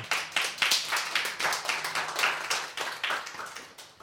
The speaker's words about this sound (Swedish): En stor applåd. Välkommen!